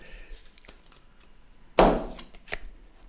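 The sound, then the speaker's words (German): A sharp knock on a deck of tarot cards, followed by a brief rustle and a lighter tap, with softer handling noises before it and no talking. “es wird wieder auf die Karten geklopft und geschüttelt und es wird die Energie empfangen.”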